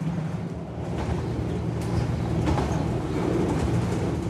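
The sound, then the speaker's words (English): A train rumbles steadily along the tracks past green fields, a continuous low, heavy roar with faint rhythmic clatter, loud throughout, with no voices. “As the train makes its way, green fields flash by the window.”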